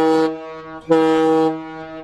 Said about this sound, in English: air horns, baby. There we go.